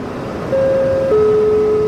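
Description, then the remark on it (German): Steady city street traffic rumbles throughout on Bärenschanzstraße in Nuremberg, and partway in a sustained horn-like tone begins, then drops to a lower pitch and holds to the end. No one speaks. “Bärenschanzstraße, Nürnberg.”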